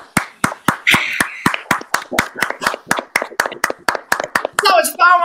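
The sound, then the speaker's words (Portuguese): A group claps hands in a steady, fast rhythm, sharp slaps landing roughly in unison about four times a second, with voices shouting and cheering over them, louder toward the end. “Agora uma salva de palmas, uma salva de palmas.”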